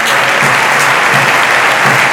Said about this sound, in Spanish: Se marcha Manu Sánchez, ovación de Castalia para Manu, ¿eh?